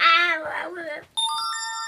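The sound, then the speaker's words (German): A high, wavering vocal sound is cut off by a mobile phone ringtone from a phone in a back trouser pocket, a loud, steady electronic melody of bright tones that plays until the end. “Oh, was war das denn? Ah, mein Telefon.”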